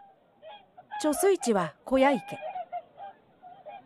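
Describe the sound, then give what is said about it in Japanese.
A flurry of loud, nasal honking calls from migrating swans, several overlapping bursts, trailing off into softer, scattered honks. “渡り鳥である白鳥の声が水の中に残っていたのだった”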